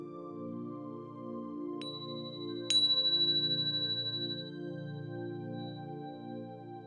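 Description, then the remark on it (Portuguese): A soft bell chime strikes twice in quick succession, its clear tone ringing out and slowly fading over a steady, low ambient drone. No one speaks. “E assim, iluminado pelo seu presente, você vai voltando e você vai ouvir o som suave de um sino”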